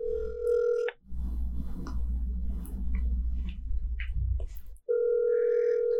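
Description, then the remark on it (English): A telephone call to Hawk ringing out: a steady electronic ringback tone sounds for about a second, gives way to several seconds of low, rumbling line noise, then the tone starts again. No one speaks. “All right, so ladies and gentlemen, tonight we are calling in to Hawk, unbeknownst to Mickey, for the TSA reunion the 20 year cycle.”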